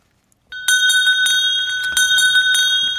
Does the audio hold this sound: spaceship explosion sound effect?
no